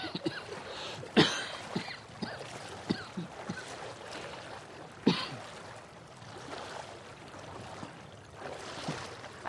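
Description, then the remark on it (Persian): Water rushes steadily from underground qanat channels, water from several qanats pouring together, a continuous broad wash of flow broken by a couple of sharp splashy knocks near the start and middle. No one speaks. “عجب آبیه این همه این آبیه که ها دارن بهش میگن آب برهم آب تا قناتی ریختن رو هم”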